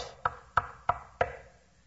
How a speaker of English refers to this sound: Soon the wolf knocked on the door of the first little pig's house.